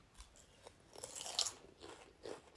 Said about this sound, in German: Leute, passt auf. Ja, mhm. ich, beziehungsweise wir, essen nebenbei Chips. Mit einem Salsa-Dip.